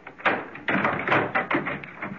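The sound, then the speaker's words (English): A fairly loud series of clicks, rattles and knocks as a locked door is unlocked and opened, with a handful of uneven metallic clatters over about two seconds. “Just a sec. The door's locked.”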